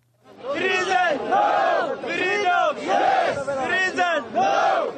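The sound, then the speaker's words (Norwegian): A crowd of African immigrant protesters and Israeli supporters in Israel chants the slogan "Freedom yes, prison no" in unison, loud rhythmic phrases repeated about once per second with brief dips between them, many voices shouting together. “Frihet ja, fengsel nei, roper disse afrikanerne.”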